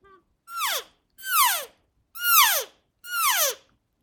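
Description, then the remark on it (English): Four loud elk cow calls made by sucking in on a handheld Quaker Boy external reed cow call, each a short, nasal mew sliding downward in pitch, repeated at an even pace with brief silent gaps and no talking. “You're you're sucking in, you're not blowing out.”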